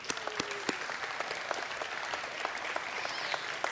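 A crowd applauds steadily, many hands clapping in a dense, continuous patter with a few sharper individual claps standing out, holding at an even level throughout.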